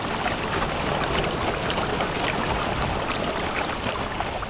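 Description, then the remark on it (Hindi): Water gushes and sprays steadily and loudly from a temple floor that split in two after a loud blast, about five feet from the Shiva lingam, a continuous rushing hiss that holds at the same level throughout, with no voices. “तभी मंदिर के अंदर शिवलिंग से कुछ पांच फीट दूर जोर से धमाका हुआ और फर्श टूट के दो भाग में बट गया और अंदर से भर भर के पानी के फवारे निकलने लगे फिर अचानक सब कुछ शांत हो गया बस पानी की आवाज आ रही थी”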